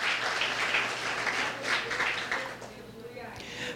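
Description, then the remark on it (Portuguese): An audience applauds steadily for several seconds in praise of Jesus, a dense wash of many hands clapping with mixed voices underneath, tapering slightly toward the end. “Aplauda Ele nessa noite, em nome de Jesus.”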